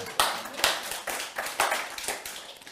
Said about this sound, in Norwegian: Så var det 20 ungdommer som sa at de ville bli frelst. Og det er fordi at dere var med og ba. Ja, det er lov å klappe. Det er amen til det.